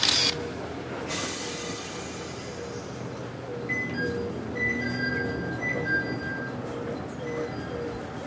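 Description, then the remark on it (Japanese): A train rumbles steadily into Onagawa Station, the end of the line, its wheels roaring, then brakes squeal in thin high-pitched bursts as it slows toward a stop. “さあ今ね電車を降りて、え女川の駅に到着しました”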